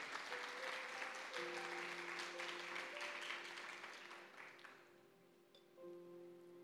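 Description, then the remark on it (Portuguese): A large crowd claps steadily in a dense, rain-like wash of applause that gradually thins and fades out, while sustained keyboard chords hold underneath. “Você pode aplaudir esse amor tão extraordinário?”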